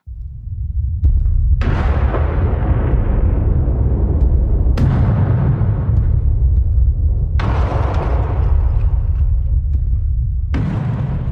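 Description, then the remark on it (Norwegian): Heavy bomb explosions as about 100 British bombers strike the refinery at Vallø, Tønsberg, on the Oslofjord just before midnight on 25 April 1945. Five sharp blasts boom one after another about every two to three seconds, each followed by a long rumbling decay over a constant deep roar. No voices are heard. “Så smeller det.”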